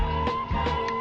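A few short, wet slurping sips of coffee, heard over a steady humming background tone.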